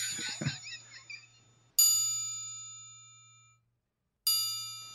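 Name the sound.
triangle being struck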